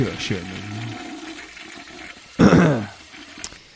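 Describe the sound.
A short, loud toilet flush rushes in after a brief spoken voice, a quick gurgling burst of water lasting about half a second before trailing off.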